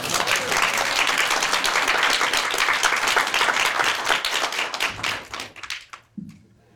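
An audience applauds with dense, steady clapping that holds strong for about five seconds, then thins into scattered claps and fades out.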